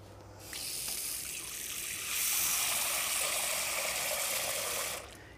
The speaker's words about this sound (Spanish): Luego le añadimos un poco de agua.